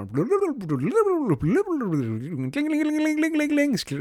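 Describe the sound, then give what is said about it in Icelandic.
A voice mimics a slot machine jackpot, with swooping, warbling pitch sweeps rising and falling, then a steady high buzzing ring held for over a second before trailing off. “þið getur ímyndað ykkur að vinna jackpot, þú veist að vinna stóra vinningin í einhverjum svona slottvél þá koma svona alls konar hljóð þá”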